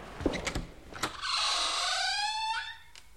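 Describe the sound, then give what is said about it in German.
A hidden door, concealed behind a suit of armour and marked 'Vorführraum' (screening room), opens: a few sharp clicks and knocks, then a long, loud creaking groan that wavers in pitch for over a second before fading, and a final faint click. “Wir haben nämlich eine Tür übersehen.”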